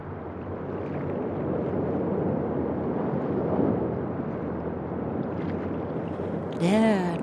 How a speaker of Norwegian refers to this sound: Nå er alle stuet sammen under dekk på en 30 fots hjemmelaget motorbåt med en liten mast, slik at de også kan bruke vinden. Det er bekende mørkt denne natten da 46 flyktninger er på vei ut på havet.